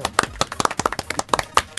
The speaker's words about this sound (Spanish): Un aplauso, por favor, por favor.